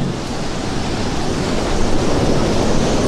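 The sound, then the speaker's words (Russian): Rough sea waves in a storm roar in a dense, continuous wash of noise, swelling slightly partway through, loud with no voices. “Он преследовал своего противника, но случился шторм, и его флот, состоявший из 80 кораблей, потерпел крушение.”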